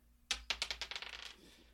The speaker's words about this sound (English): Uh, so well, should I roll some dice to see who goes first? Uh, sure. All right, here we go.